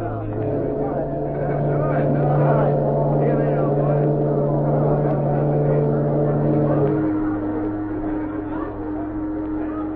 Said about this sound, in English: a great ship prepared to sail.